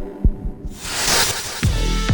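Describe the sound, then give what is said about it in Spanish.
Deep, muffled heartbeat thumps pulse at a steady rhythm while a broad rushing whoosh swells up behind them; no voices are heard. “¿De qué manera se pueden utilizar los latidos del corazón para identificar personas?”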